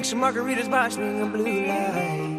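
An upbeat music track plays steadily at a fairly loud level, with melodic sung or synth lines gliding over a rich, sustained harmonic backing.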